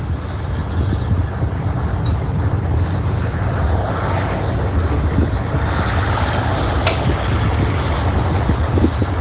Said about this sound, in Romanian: Am să vă las un pic cu liniștea din Kiev ca să înțelegeți cât de straniu e. Ascultați un pic.